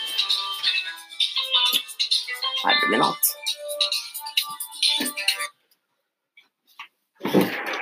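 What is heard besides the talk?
mobile phone ringing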